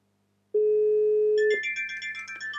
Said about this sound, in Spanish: pulso el cero, la respuesta es inmediata, aunque al ser una llamada y un teléfono inalámbrico, como, como habéis oído, ha dado otro tono, pero la llamada ya había cortado con anterioridad.